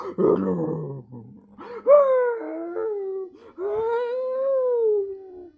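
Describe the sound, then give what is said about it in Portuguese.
A series of loud, long animal roars, starting with a rough growling burst and followed by drawn-out, wavering howling cries one after another, with no talking. “O tempo foi passando, até que de repente ouviram-se vários rugidos muito fortes e muito longos.”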